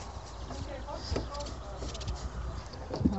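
Scratching and rubbing against a goat's coat during a goat massage, a steady rough rustle broken by a few soft hoof shuffles and knocks, with a louder scuff near the end.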